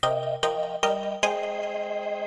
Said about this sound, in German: So, und zwar haben wir ähm, erstmal ein Jingle.